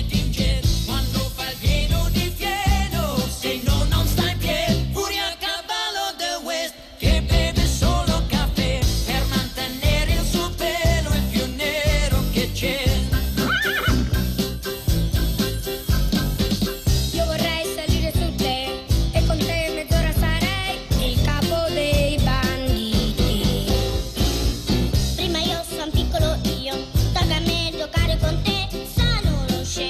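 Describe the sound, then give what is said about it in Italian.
An upbeat Italian TV series theme song plays loud and continuous with full band instrumentation, briefly thinning out for a moment near the start before carrying on steadily to the end. “Deve essere una sigla anche eh, questa.”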